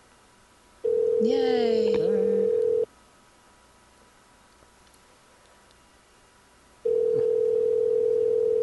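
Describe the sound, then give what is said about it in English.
An outgoing phone call's ringing tone: a steady electronic burr lasting about two seconds, a long silent gap, then a second ring starting. A voice briefly exclaims over the first ring. “It's ringing.”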